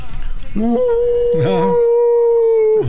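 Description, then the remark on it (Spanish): A man lets out a long, loud wolf-like howl, a sustained steady tone held for over two seconds after a brief rising start, imitating a wolf. “estoy aullando, pero de recuerdos.”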